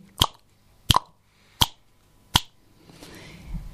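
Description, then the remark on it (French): Four crisp finger snaps at a steady, unhurried pace, each a sharp bright click, followed by a faint rustle. No one speaks. “Et à chaque claquement de doigts, vos deux mains s'éloignent.”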